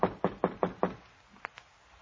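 Five quick, evenly spaced knocks on the door of hotel room 729, fairly loud, followed by two faint, sharp clicks. No one speaks.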